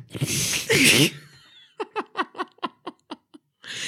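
A loud sneeze with a sharp explosive burst, followed by a quick run of rhythmic, breathy laughter and then another noisy burst at the end.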